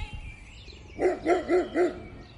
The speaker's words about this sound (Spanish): Aquí me ladró un perro. No te preocupes, tengo cuatro perros, pero de este tamaño no. No hace nunca esto, pero cuando ve a alguien ahí en la... ¿Sí, en la oscuridad?